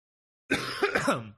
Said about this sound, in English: this is getting edited out. This cough.